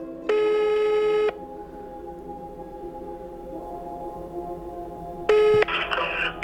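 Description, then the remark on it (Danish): A telephone ringback tone from a phone call being dialed to a woman sounds twice, a long steady electronic ring near the start and another about five seconds later, with quiet line hiss between and a faint voice at the end. “Så det er sidste chance, da jeg ringer til en dame”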